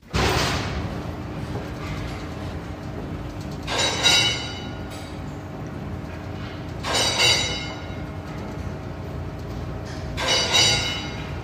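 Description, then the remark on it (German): A theatre's iron safety curtain, a metal wall raised at the start of a performance and still working as it originally did, being raised: a steady mechanical rumble and whir, broken by four loud, hissing, metallic squeals that recur roughly every three seconds. No one speaks. “Auch der eiserne Vorhang, also die Metallwand, die zu Beginn der Aufführung hochgelassen wird und die Aufführung einleitet, funktioniert noch genau wie damals.”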